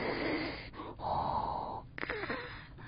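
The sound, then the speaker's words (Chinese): A voice imitates snoring: two long, raspy, breathy snores with a short pause between them, followed by a quick snorting catch of breath, fairly loud with no talking. “这个好像就是爸爸的打呼声诶。”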